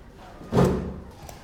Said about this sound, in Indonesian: Ya udah duduk ya. Nih sini sini sini. Oke, oke. Tarik kursi itu.